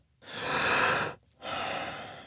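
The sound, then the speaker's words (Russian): A slow, deep breath drawn in as a technique for coping with fear, lasting nearly a second, then a brief pause and a long, airy exhale. No one speaks. “Нужно вдохнуть.”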